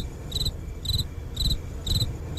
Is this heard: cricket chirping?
yes